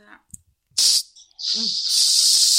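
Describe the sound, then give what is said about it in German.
Hiss of a whipped cream aerosol can: a short quarter-second spray, a brief pause, then a longer, steady, loud spray that runs for over a second. “Okay, es funktioniert. Und ich werde jetzt die Sahne in meinen Mund sprühen.”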